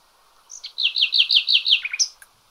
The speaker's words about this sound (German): Man kann sie jetzt hören, auch bei uns im Mittelland. Es sind immer kurze, zwei- bis dreisekündige Strophen, die sie singt, die Nachtigall.